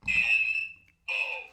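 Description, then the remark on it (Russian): A harsh electronic buzzer from a red game button on a table blares twice, a long tone, a brief gap, then a second shorter blast. It is loud, like a game-show wrong-answer button. “Вторая красная вот так звучит.”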